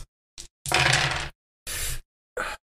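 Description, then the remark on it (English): Five dice clatter across a hard tabletop in several sharp bursts, one longer rattling roll between short clicks, fairly loud with silence in between and no voices. “Before we deal with the panic aspect of it, uh, go ahead and roll me uh, five dice.”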